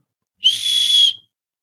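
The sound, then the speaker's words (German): A single sustained, shrill whistle note from a whistle lollipop being blown, lasting just under a second with a slight airy breathiness, fairly loud, then cutting off into silence. “Mh, hm es ist ein Pfeifenlutscher.”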